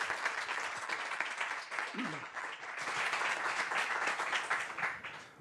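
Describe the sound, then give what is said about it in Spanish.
Sustained, dense applause from an audience, a loud wash of many hands clapping at once with steady energy throughout, swelling slightly midway before tapering at the end. “Así que yo me siento, les damos un aplauso muy fuerte y otra vez gracias.”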